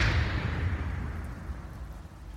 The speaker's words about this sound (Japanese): それから数百年、那須野ヶ原で殺生石となった九尾の狐は近づく者をすべて殺してきた。そして2022年その殺生石が真っ二つに割れた